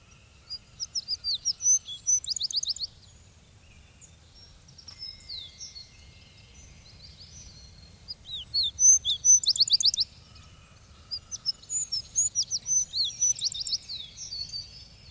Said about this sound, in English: in a remote clearing covered with heath and fern, or here and there a chestnut and an oak, I go to hear in July the wood sparrow.